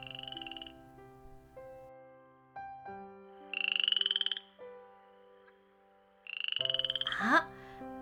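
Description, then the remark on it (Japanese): A frog in a forest croaks in three buzzy, pulsing bursts spaced a few seconds apart, heard over a bed of soft, sustained musical tones with no one talking. “あそこにいるのはカエルさんだカエルさんこんにちは”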